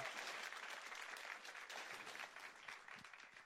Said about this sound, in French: Applaudis le Seigneur. Hallelujah. Oh, Jésus, hallelujah.